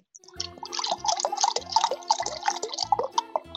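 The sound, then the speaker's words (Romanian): Liquid gurgles steadily as it is poured, a quick run of rhythmic glugs and splashy bubbling that continues without pause for a few seconds at a fairly strong level. “Mamă, ce gâl-gâl hotărât.”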